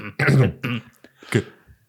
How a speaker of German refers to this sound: Räuspert.